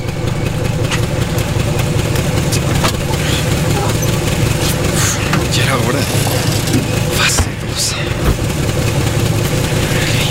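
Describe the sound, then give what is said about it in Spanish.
A car engine idles steadily, a continuous low rumbling hum that holds the same level for the whole stretch, with faint scattered noises on top. “Sube el coche. Pero yo traigo mi coche.”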